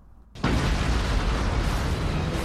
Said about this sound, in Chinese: 大地轰隆隆的摇晃，这是一场剧烈的地震。随着轰隆隆的声响，大地裂开了，大地分成了两半。